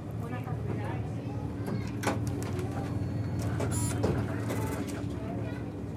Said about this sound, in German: Nizza im Juni 2023. Blauer Himmel, angenehme Wärme. Auf der Place Garibaldi in der Altstadt sind die Menschen ganz entspannt unterwegs. Es ist morgens gegen halb zehn.